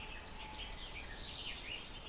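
Birds sing steadily in the background outdoors, a dense wash of overlapping high chirps and trills at a fairly even, moderate volume, with no voices present.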